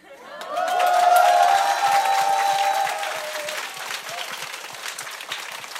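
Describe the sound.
An audience bursts into sustained applause for the reporter who hosted the second part, dense and steady clapping that swells quickly, with a few whooping voices early on, then eases slightly while continuing for several seconds.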